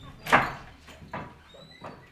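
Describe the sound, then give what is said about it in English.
The wooden door of a ski shop squeaks open in a few short, scraping bursts, the first one loudest, with faint thin creaks trailing after and no voices. “The same wooden door still squeaks to begin each visit.”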